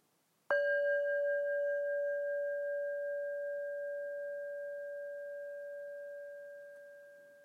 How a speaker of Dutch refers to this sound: je kunt horen naar het geluid van de klankschaal als beginsignaal van deze podcast.